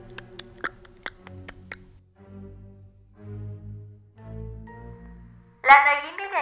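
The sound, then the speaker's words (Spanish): A quick run of about seven sharp tongue clicks imitates clopping hooves. Muffled voices follow, ending in a loud, high-pitched vocal outburst. “aunque quedó con un ligero trauma cuando alguien hacía el sonido de los cascos, ya sabes, como así de”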